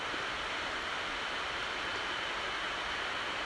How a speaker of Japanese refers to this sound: えー、この遠くにせせらぐ川の音聞こえるでしょうかそして鳥たちがさえずる声もなんとなく聞こえるでしょうか